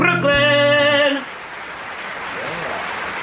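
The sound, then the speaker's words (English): A held, bright musical chord cuts off abruptly into a steady, rushing wash of noise, like ocean surf blending into the patter of applause, continuing evenly to the end. “It kind of sounds like an ocean and then goes into applause.”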